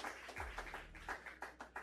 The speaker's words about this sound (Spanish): No, están aplaudiendo, fíjate.